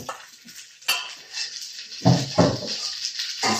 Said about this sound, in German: Deswegen mal sehen, wie das jetzt klappt. Ich versuche das ja in, in der Pfanne so ein bisschen klein zu machen.